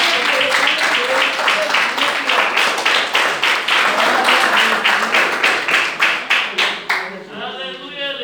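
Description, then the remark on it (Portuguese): An audience at an evening church service claps together in worship of Jesus in a steady, brisk rhythm, loud sharp claps with voices mixed in underneath, before the clapping stops and a single voice carries on briefly. “Essa é a palavra que o Senhor colocou no meu coração e as palmas que adorem ao Senhor Jesus nessa noite.”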